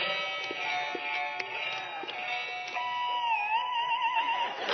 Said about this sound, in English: So I've been practicing. I got my new guitar. And uh, you ready for this? It's it's a little hard to hear. It's not as loud as Domino's, but here we go. Can you hear it?